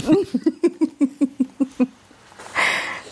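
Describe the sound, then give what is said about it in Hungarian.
A sleeping dog, dreaming and running in its sleep, snores and twitches, making a quick rhythmic run of about nine short, muffled huffs, followed by a brief soft scuffling rustle, fairly quiet. “Igen, ezt akartam, hogy elnézést kérünk kedves hallgatótól, a kutya horkol. De ráadásul, és azt hiszem, hogy fut is közben, tehát hogy álmodik igazából az van.”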